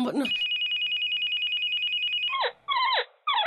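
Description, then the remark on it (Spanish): A cell phone rings loudly: a long steady electronic tone, then a run of quick warbling chirps repeating in bursts, with a brief voice sound at the very start. “Marica, ese celular no suena.”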